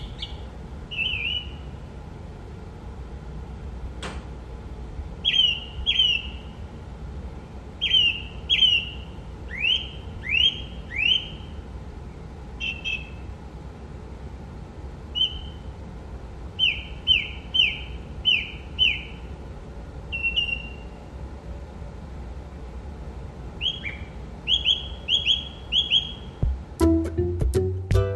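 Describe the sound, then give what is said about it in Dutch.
A song thrush, heard through an open window at around half past four in the morning, sings clear, whistled phrases, each repeated two or three times in quick bursts separated by short pauses, against a quiet background hum. “Dat is de zanglijster.”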